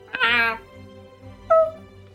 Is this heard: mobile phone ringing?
no